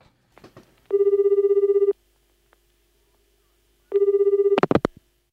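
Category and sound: signal or alarm, telephone ringing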